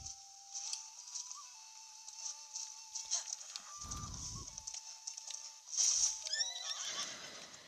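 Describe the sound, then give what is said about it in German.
A horse whinnies with a shrill, quavering neigh while hooves clop and thud, with a heavier stamping burst midway and a louder whinny near the end. “Chill, Pferd, chill.”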